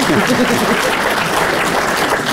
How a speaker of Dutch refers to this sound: Dat applaus is veel te luid.